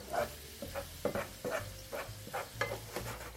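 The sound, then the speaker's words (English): Carrots sizzle steadily in browning butter and cream, punctuated by a quick, regular series of stirring scrapes in the pan, moderately loud, with no voices. “I don't know if you can hear this, but it's really cool that not only is this visually changing as I've been trying to describe to you, but the sounds change too.”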